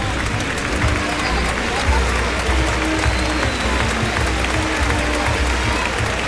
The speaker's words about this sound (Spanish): Morante de la Puebla que va a salir a saludar esta ovación que oye.